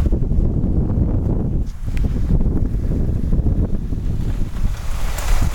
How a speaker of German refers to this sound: Boah, ist das ein Wind. Leute, hört mal.